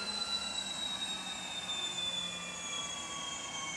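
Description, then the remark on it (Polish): An aircraft engine winds down after being shut off once the plane is parked on the line at its designated point, a steady roar with high whining tones that slowly drop in pitch. Continuous, with no voices. “A właśnie wyłączyli silniki.”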